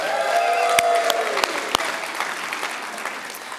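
An audience at the Kearney campus cheers and applauds together, a dense wash of clapping with excited voices rising at first, then settling into steady applause that carries on throughout.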